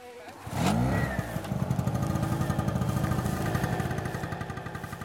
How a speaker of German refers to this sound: Generator ist bereits am Laufen.